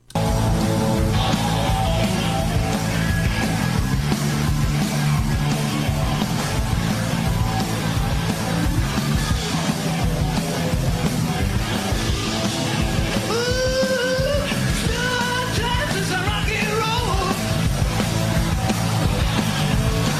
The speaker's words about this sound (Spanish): Vamos con … y esta canción que se llama ….